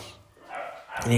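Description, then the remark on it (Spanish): The speaker's own dogs bark in short bursts, a yelp-like bark rising near the end, mixed with a voice talking over them; moderately loud. “Me puse, no sé si escuchan a mis, perros ladrando.”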